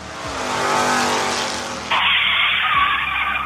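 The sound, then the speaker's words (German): A white van carrying bicycles speeds off with a loud, sustained tire screech, the engine roaring underneath and shifting pitch partway through as it pulls away. No one speaks. “Und keines der Bikes, die mit diesem Van wegfahren, sieht man jemals wieder.”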